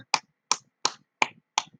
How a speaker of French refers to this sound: il peut s'applaudir.